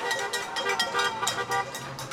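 Car horns honk repeatedly in support of Democratic candidate Joe Biden in a busy street scene in southern Florida, where about 25 people wave American flags and bang pans; overlapping toots sound from several directions amid a dense wash of crowd and traffic noise, with a faint voice underneath.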